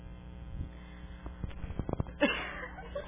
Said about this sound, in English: Sorry. Interference. Distracted.